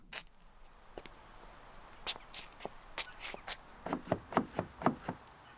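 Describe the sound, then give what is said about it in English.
Scattered clicks and clunks of locked car door handles being tried by two men walking the streets in the rain, followed by a quickening run of footsteps drawing closer, with no voices. “The two grumpy old gits are walking the streets and trying to open car doors without success.”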